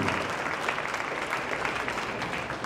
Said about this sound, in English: Guys, keep clapping